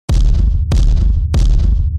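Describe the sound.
Three heavy, violent, booming blows on a door at a steady pace, each a loud thud with a resonant low rumble that rings on between hits. No one speaks.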